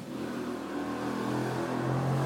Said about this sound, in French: Vous entendez une moto